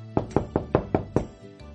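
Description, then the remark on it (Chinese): Six firm knocks rap on the door of the little turtles' home in a quick, steady rhythm, each a hollow thud with a short ring, followed by a fainter tap after a brief pause, as two characters knock together. No voices are heard. “小趣和甜甜一起敲起了门，小乌龟依旧没有开门。”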